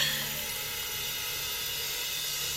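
A soft, steady hiss fills the room, continuous and even from start to finish, with no voices or other sounds alongside it.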